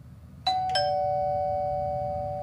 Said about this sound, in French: Le son de cette sonnette vous semble probablement bien banal. À moins que l'on vous dise que c'est Gilles, 75 ans, qui distribue des repas à des personnes dans le besoin de son quartier